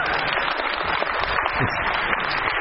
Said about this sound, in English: Big applause